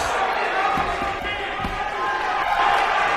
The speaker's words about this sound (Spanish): Ahí suena la campana, sí, es el décimo segundo episodio